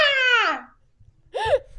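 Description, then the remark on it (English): A toddler boy who is still learning his words lets out a loud, high-pitched yell that slides downward, then after a short pause babbles and shouts again in brief, bright vocal bursts. “There's a lot so, of yelling going on.”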